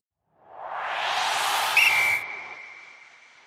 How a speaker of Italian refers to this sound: Sigla e poi iniziamo a raccontare.